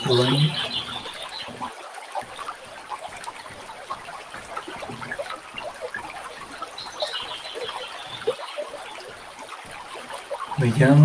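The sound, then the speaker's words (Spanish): A river flows steadily with a continuous rushing, trickling wash of water, even throughout, with faint bird calls now and then in the background. “disfrutando este sabor a medida que el sonido del río nos acompaña también.”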